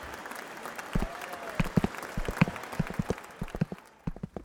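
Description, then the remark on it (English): A crowd applauding and cheering, with sharp, irregular claps over a steady wash of crowd noise that thins out near the end. “We weave our way out of the still cheering crowd under the pretense of finding some snacks”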